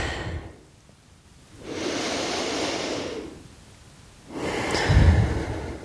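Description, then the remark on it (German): Slow, deep breathing during a breathing meditation, long airy inhales and exhales alternating with quiet pauses, about two and a half breath cycles with no talking. “So, ihr hört jetzt hier nur mein Atmen”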